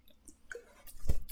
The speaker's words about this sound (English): sorry, little sip.